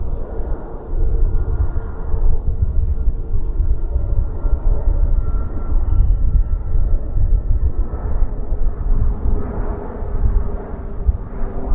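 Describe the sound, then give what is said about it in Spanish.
A jet airplane descends overhead on its approach to Madrid's Barajas airport, passing over a valley near Mejorada del Campo. It is a loud, sustained low roar with a steady whine on top, filling the whole stretch without any voices. Planes like it pass roughly every minute. “Exactamente el de los aviones que vemos ahora cómo descienden hacia Barajas por esta vaguada, esta ondanada de mejorada del campo.”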